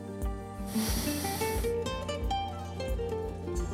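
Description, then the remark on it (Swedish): A single deep breath drawn in through the nose during a guided breathing exercise, a soft airy rush lasting under a second, set against steady background music with a gentle pulsing bass. “Och andas in igen.”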